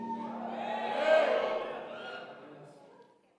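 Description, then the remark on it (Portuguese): An audience shouts loudly together when asked who is happy to give a strong shout, a burst of many voices swelling to a peak and then fading over a few seconds, with cheers and whoops mixed into the roar. “Só para mim saber, quem está feliz aí, deu um grito bem forte.”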